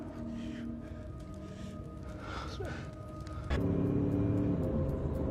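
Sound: car driving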